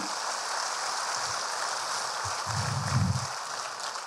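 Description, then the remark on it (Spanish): An audience applauds for the Savior: a dense, continuous wash of clapping hands that holds steady throughout, with a low murmur of voices rising briefly near the end. “Ah, si ese aplauso es para el Salvador de nuestras vidas, que suene fuerte.”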